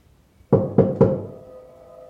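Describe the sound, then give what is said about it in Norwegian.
Three quick, firm knocks on a wooden bedroom door, evenly spaced, each leaving a short resonant ring that fades into quiet afterward, in a house gone silent after a baby fell asleep. “så banker det på soveromsdøra mi.”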